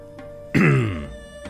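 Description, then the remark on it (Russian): A man clears his throat once, fairly loud, a rough guttural rasp that starts abruptly and fades over about half a second, with no talking. “откашлялся покрасневший господин Со, как будто собирался что-то сказать”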